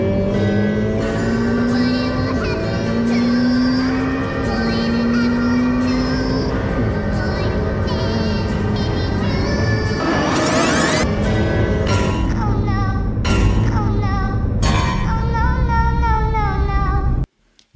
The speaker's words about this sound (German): Ja, man hat schon ein bisschen im Hintergrund gehört, das war ein äh, der Ferrari-Sound von dem Achtzylinder. Über den Motor reden wir gleich noch.